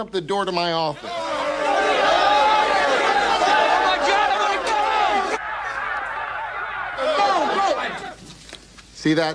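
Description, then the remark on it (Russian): Loud, busy chatter of salespeople in a sales office, heard through an office door as it is opened: many voices talking over each other at once, with occasional laughs, swelling in abruptly after a brief opening sound and dropping away near the end. “Слышали, это мои продавцы.”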